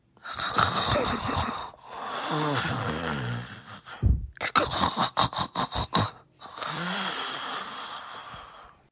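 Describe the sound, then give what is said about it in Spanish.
A voice imitates an ogre's loud snoring: long rasping, snorting breaths, then a quick run of short rhythmic snorts, ending with another drawn-out growling snore. “Al poco rato, todo el castillo retumbaba con sus ronquidos.”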